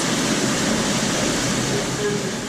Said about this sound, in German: Die Pumpen laufen. Ein Mitarbeiter von Sorno öffnet einen schwarzen Schalenkoffer vor sich. Er betätigt einen Hebel und Wasser schießt aus der Anlage heraus.